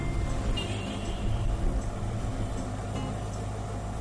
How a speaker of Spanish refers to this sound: este tráfico ya es tarde. Esto va que parece un desfile.